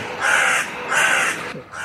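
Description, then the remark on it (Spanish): Crows caw loudly and harshly, two drawn-out calls in quick succession with a third starting at the end, with no voices. “Eso, esos cuervos. Eso es continuo.”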